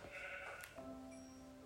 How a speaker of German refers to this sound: Oh. ist noch ein Schaf.